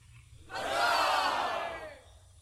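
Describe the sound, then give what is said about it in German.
A crowd bursts into loud cheering and roaring for about a second and a half, swelling quickly then fading out, with no talking over it. “Äh, du hast ein Spinnpäckchen fertig äh, zusammengeschnürt und äh, die Leute jubeln dir zu.”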